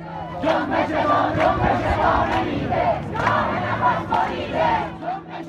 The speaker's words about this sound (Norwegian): Og etter det så har iranske gater vært fylt med skrikende jenter, gutter og kvinner og menn.